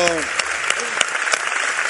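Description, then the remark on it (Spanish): An audience bursts into steady, dense applause for the art team who projected documentary images onto the bull, filling the whole two seconds with a fairly loud clatter of many hands, and a brief voice sounds over it at the very start. “Habría que aplaudir aquí, ¿eh?”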